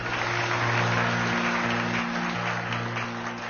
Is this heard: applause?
yes